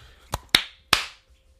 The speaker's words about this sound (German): 3, 2, 1, Rekord. Klick, ich habe auf Rekord geklickt. 3, 2, 1, Klatsch.